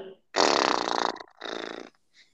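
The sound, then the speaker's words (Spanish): A person blows a loud, buzzy lip-flutter exhale through the mouth imitating a snorting horse, after a deep inhale and brief hold as a calming breathing exercise, two bursts, the first longer, with a faint breath at the end. “sostener un poco el aire, unos segunditos, y a la hora de exhalar, exhalamos por nuestra boca haciendo un sonido similar a como cuando un caballo está, está resoplando, ¿no?”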